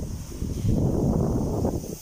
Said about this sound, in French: Vous voyez le son, le son, le vent.